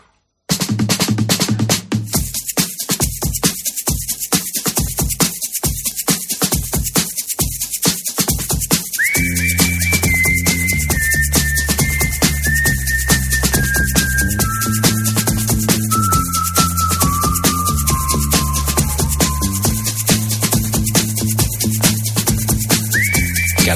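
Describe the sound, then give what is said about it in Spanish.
A bright whistled melody enters partway through, carrying a catchy descending tune over a pop band backing of drums, bass and guitar. The whistling is clear and prominent, sitting on top of the mix. “mejor tú vas por la carretera cuando estás en la operación salida cantando, silbando esta canción”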